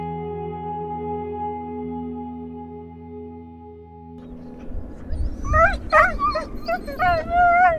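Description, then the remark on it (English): A steady low engine-like hum gives way to a pack of sled dogs in Puvirnituq, a community in Canada's north, barking, yipping and whimpering in overlapping, high, wavering cries that grow louder toward the end. “It took me the better part of a day to get to Puvirnituq home to about 2,000 people and countless sled dogs.”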